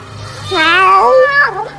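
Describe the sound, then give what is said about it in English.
A single drawn-out cat meow, fairly loud, rising and then sliding down in pitch before trailing off, with no talking around it. “Oh, you came. Here, come here nice, kitty.”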